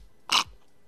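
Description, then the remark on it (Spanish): A single quick slurp of coffee through a straw from a glass, fairly loud, lasting a fraction of a second, with no talking. “Ay, eh, dejen, tomo otro traguito de café.”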